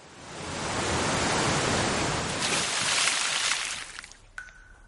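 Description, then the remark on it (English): A loud, steady roar of water pouring down from a waterfall onto people whose raft has just gone over it and reached the bottom, a dense rushing hiss that swells, holds for several seconds, then quickly fades away. “When they arrive at the bottom, water from the waterfall falls on top of them.”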